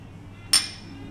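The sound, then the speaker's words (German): A single bright clink of glasses touching in a toast at a bar, a Sazerac whisky cocktail and a Pisco Sour, sharp, with a short ringing decay over a low background murmur. “Zum Wohl.”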